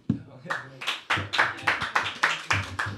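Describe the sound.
Brief applause: around ten sharp, evenly spaced claps in a quick steady rhythm, fairly loud, with faint voices murmuring underneath.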